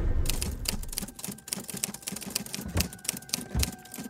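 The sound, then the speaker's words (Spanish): A typewriter clatters as someone types a story about astronauts, its keys struck in quick, uneven bursts with sharp mechanical clacks filling the few seconds, with no voices present. “Estoy escribiendo sobre astronautas y la verdad no sé si lo estoy haciendo bien.”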